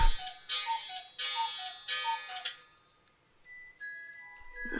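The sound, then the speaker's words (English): An old cuckoo clock chimes 10 a.m. with a run of evenly spaced calls, fairly loud, then its ringing fades into faint high tones. No one speaks. “Oh, there's 10 a.m. on the old cuckoo clock.”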